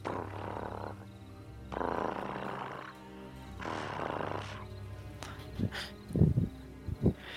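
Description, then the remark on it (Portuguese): A voice imitates the purring of two creatures, producing three long, rumbling, breathy bursts separated by short pauses, followed by a few short, sharper grunting noises, moderately loud. “E você ouve um ronronar dos dois.”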